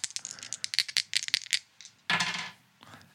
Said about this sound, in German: Auf jeden Fall haben wir einen W4 und einen W8 und würfeln das jetzt und bestimmen so schon mal das Genre, um das so ein bisschen einzugrenzen hier.